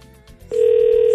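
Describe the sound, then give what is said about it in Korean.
A telephone ringback tone of an outgoing call to a listener starts partway through, a loud, steady electronic hum that holds without a break over faint low background music. “자 이분께 이분께 바로 전화드립니다.”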